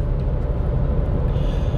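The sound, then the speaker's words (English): Steady low rumble inside an orange Kia car while driving, a constant engine and road drone concentrated in the low end, with no voices or distinct events. “Eh, when I drive the orange Kia, it's not very quiet.”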